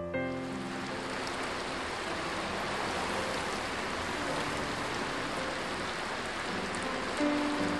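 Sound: cold rain falling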